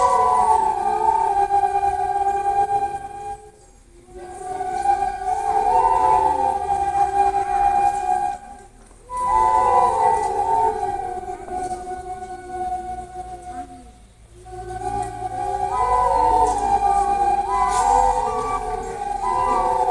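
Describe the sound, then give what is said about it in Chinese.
Several nose flutes played together by children of Laiyi Elementary School, soft, breathy sustained tones, melodic phrases rising and falling in a mid-high pitch, with brief pauses between phrases and no talking. “听众朋友听到的这一段呢，是来义国小的小朋友他们演奏的鼻笛。”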